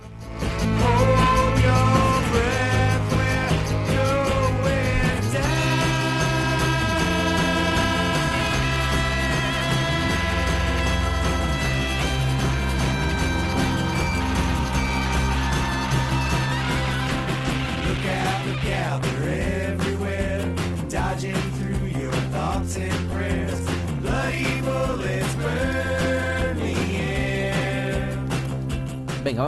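A band plays a song from its ninth LP, released this year, at a steady, loud level throughout, with layered sustained chords over a bass line and a driving drum beat, and no talking.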